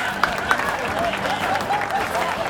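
Steady audience applause, a dense crackle of many hands clapping that holds at an even, moderately loud level for a couple of seconds, with a few sharper claps and faint whistles mixed in.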